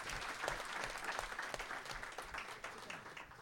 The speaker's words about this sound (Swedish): Applåd!